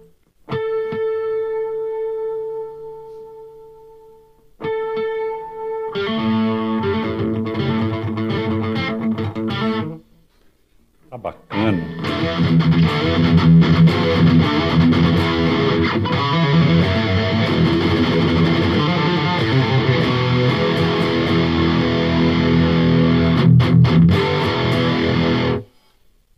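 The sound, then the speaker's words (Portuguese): An untuned, heavily distorted electric guitar, played the way it was played in the 1980s, rings out a couple of sustained notes, then launches into loud, dense strummed chords, pauses briefly, and keeps churning on without any voices. “hoje, hoje eu vou ensinar o Rafael Bittencourt a tocar do jeito que eu tocava nos anos 80. Nada de afinação.”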